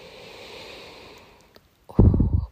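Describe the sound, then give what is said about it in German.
A long, steady breath drawn in, fading out after about a second and a half, then a short pause and a loud, low blurting sound. “Dann sagte man mal öfter Pups und dann atmen wir zum Beispiel ein.”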